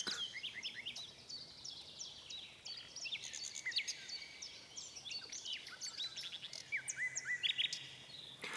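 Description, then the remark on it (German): A mechanical artificial bird sings the same piece again and again, a busy, repeating tune of bright chirps and quick trills, continuous for the whole stretch at a steady, moderate level, with no voices. “Den besten Vogel haben wir doch, sagten sie, und so musste der Kunstvogel wieder und wieder singen, immer dasselbe Stück.”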